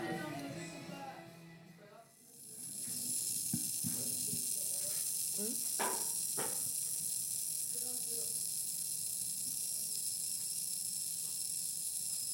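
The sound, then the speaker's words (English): Fizzing of bacteria in a fermenting jar: a steady hiss that sets in after a brief voice at the start, with occasional small pops and crackles scattered through it. “So this is the audio of the fermented. Uh is the, the bacteria, but it's coming up.”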